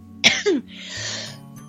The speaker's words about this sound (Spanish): con la garganta que llevo una semana ahí un poco mm, mal y no me dan ataques de tos así de repente horribles